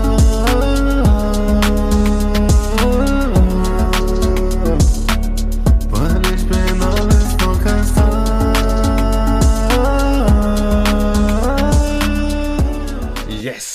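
A rap song plays loud and close throughout, with a punchy, steady drum beat and sustained melodic layers that fade slightly at the very end.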